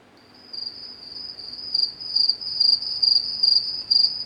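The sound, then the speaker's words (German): Cricket chirps played from a soundboard: a clear, steady high-pitched pulsing trill, repeating in regular bursts about twice per second, alone with no talking. “Ähm, jetzt, wo ist das Türkengrillen jetzt gerade in dem Moment? Moment, Moment, wo habe ich mein Soundboard?”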